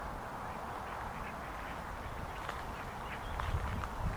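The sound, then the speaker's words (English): Several ducks swimming past on a river at dusk, looking for food, quack in a busy, overlapping chatter, with a steady outdoor wash behind them and a few sharper calls toward the end. “And we approach some ducks as they swim gently past.”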